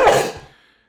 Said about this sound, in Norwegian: Uh, prosit. Velsigne deg.